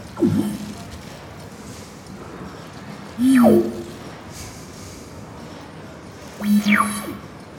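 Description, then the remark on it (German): Electronic sonification of flickering light: three swooping tones, each gliding quickly from high to low pitch and ending in a short low hum, repeated at roughly three-second intervals over a quiet background. “Ist das dein Hui, Hui, Hui? Das, das eine, eine Repräsentation des Flackerns.”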